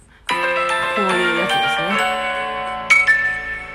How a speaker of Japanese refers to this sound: えっと、ラジオトークで遊ぼうはですね、今日、えっと、3本目からオープニングで使ってみました。えー、この謎の音楽。